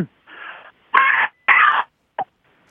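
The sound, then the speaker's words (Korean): A voice imitates a zombie with raspy, strained groans: a softer growl, then two louder throaty rasps and a brief final grunt, alone without speech. “어, 좀비 한번 해보겠습니다.”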